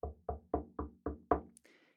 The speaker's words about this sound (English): Jesse heard a knock at his front door.